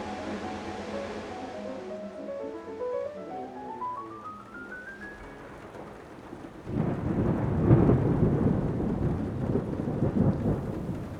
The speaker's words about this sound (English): It's raining again and growing dark